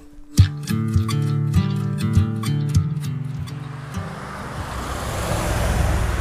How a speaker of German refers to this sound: ihr hört hier die Autos, wir sind direkt an der Straße.